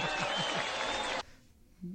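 audience clapping

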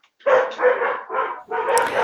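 dogs barking

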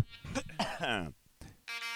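coughing

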